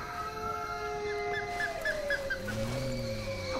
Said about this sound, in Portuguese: Viram? As lobas estão vindo para perto. E elas puxam conversa uivando.